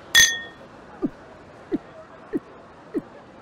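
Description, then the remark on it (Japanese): Glasses clink once in a toast celebrating a new beginning, a bright ringing chime right at the start, followed by four soft, evenly spaced low thuds. “それじゃお前の新しい門出を祝して乾杯”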